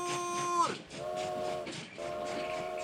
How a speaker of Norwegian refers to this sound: Nå går frokosttoget! Alle om bord!